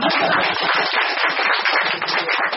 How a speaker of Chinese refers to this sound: 这个曹树基，一九五六年四月出生，江西南昌人，哎，这个我要为我要为南昌人鼓掌一下。